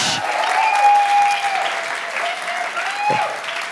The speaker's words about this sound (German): Heftigen Applaus für den Michi. On stage.